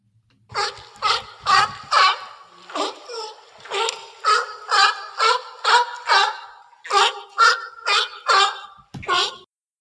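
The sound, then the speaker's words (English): California sea lions at a haul-out site bark in a rapid, steady series of loud, hoarse, honking calls, about seventeen in a row with brief gaps, over a faint backdrop of splashing water. “let me play for you really quick, just the general sound that Chris and I are trying to achieve”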